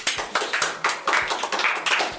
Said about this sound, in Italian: Beh, un grande applausometro, signori.